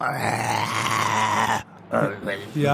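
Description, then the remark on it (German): A person voices a long, throaty growl imitating a lion's roar, loud, sustained for over a second before breaking off into a couple of shorter guttural bursts. “aber nächste Woche sind wir wieder für euch da, dann mit einer Menge Löwengebrüll. Ja, das, das klingt dann ungefähr so.”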